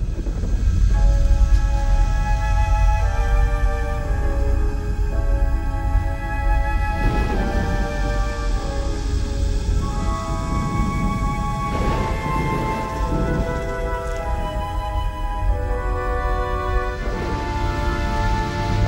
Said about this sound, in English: As Indy and Sallah approach the Ark, about to uncover it from its tomb of stone, we hear the Ark's theme play quietly in suspense